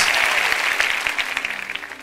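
An audience applauds the Lord loudly and steadily, a dense wash of many hands clapping at once that fills the whole moment with no voices on top.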